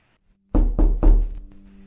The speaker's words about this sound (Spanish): Minutos antes del show, alguien golpeó a la puerta del camerino de McCarthy y este no respondía.